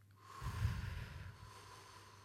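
A single deep breath rushes in and then trails off slowly into a soft exhale, with no talking around it, taken as a deep in-breath and slow out-breath in a calming breathing exercise.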